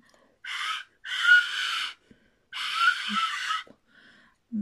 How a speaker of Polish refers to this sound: Obok mam taki flet i mogę na nim zagrać, taką piszczałkę góralską.